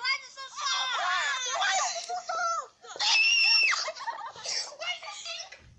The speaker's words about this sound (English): Um, that scream was me. I don't want to talk about it actually.